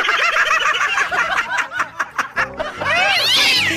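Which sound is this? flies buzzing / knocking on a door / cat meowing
cat meowing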